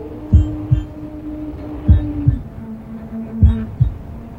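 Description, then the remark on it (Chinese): A slow heartbeat thumps three times within a song, each a deep lub-dub double beat, over a low steady droning tone that shifts pitch slightly midway. No voices are heard. “而且这首歌最打动我的地方，是它从头到尾里边有一个心跳的声音， 嗯， 心跳，你的心脏跟着一起。”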